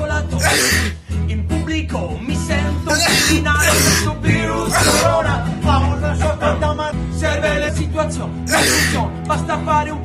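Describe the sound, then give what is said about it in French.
Several loud sneezes burst out a few seconds apart, mixed with coughing and throat noises over a dense, droning background. “car le souvenir des épidémies antérieures disparaît dans ce concert général de tout et d'éternuements.”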